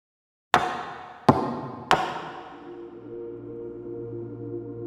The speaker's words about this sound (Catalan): Piqueu tres cops sobre la taula. Vaig demanar als assistents que piquessin tres cops sobre les seves taules per invocar el més enllà.